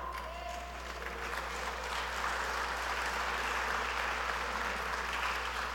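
Thin, scattered applause from an audience, a modest patter of clapping that holds steady for several seconds at moderate volume, with no voices on top.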